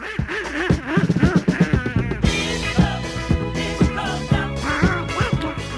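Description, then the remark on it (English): A bouncy novelty disco hit from 1976 with a steady thumping beat and bright backing, overlaid by a loud, sputtering duck-like quacking voice that chatters in bursts. “I have one last song I want to play for you”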